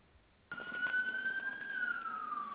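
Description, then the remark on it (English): A siren starts abruptly and holds a steady, slowly rising then falling wail, loud, continuing to the end with faint background rumble and no talking. “I hear a siren.”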